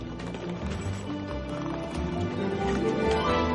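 Quick, hard footsteps clack along as a woman runs in high heels, wearing a suit and carrying a handbag, the steady clip-clop partly buried beneath a loud, continuous musical score.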